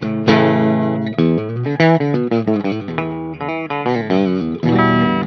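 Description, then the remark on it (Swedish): A distorted electric guitar fitted with a Lundgren Heaven 67 pickup plays a run of sustained, harmonically rich notes and chords, loud and steady with brief gaps between phrases and no voices. “Lite kanske med hur mickarna står mot, eh, hur högt de står mot strängarna och sånt där också.”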